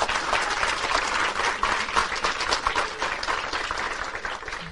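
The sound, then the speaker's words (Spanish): Steady, loud applause from a large audience for people attending for the first time, a dense wash of many hands clapping at once that holds for several seconds and tapers slightly toward the end, with no voices over it. “Un fuerte aplauso a todas aquellas personas que vienen por primera vez.”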